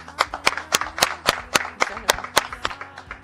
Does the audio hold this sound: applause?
yes